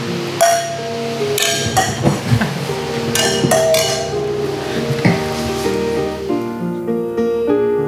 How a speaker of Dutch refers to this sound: Dan zeggen, jongens, uh, laten we daarop proosten. Proosten. Proost.